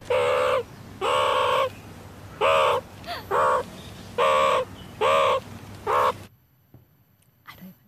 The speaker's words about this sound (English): Um, I want to say a peacock. oh no, that that's actually a meerkat.